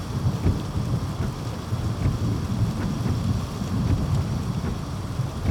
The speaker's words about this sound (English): I was passing the cheery and completely inaccurate Welcome to Melancholy Fall sign when I realized how appropriate the pouring rain was, acting as my warm welcome home on this chilly August evening.